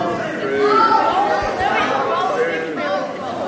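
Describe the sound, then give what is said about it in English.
An audience of many voices shouts out true or false answers all at once to the statement that eating carrots makes you see in the dark, an overlapping, steady babble of calls for a few seconds with no single voice standing out. “I'm, I'm hearing false more than I'm hearing true.”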